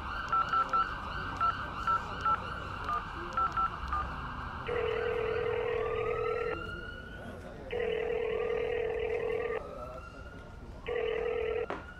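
About ten quick, evenly spaced phone keypad beeps as a number is dialed to call a friend, followed by a loud, steady ringback tone that repeats three times with short pauses between.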